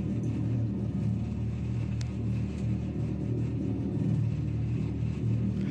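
A deep, steady engine rumble from a Dodge Charger Daytona SRT electric muscle car, loud, with heavy low-end throb holding constant throughout and no talking.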